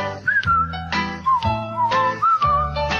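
A cheerful whistled melody glides and wavers over upbeat backing music, with a steady bass line and regular percussive hits keeping a bouncy rhythm.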